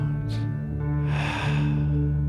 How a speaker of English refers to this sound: Take a deep breath in and breathe out.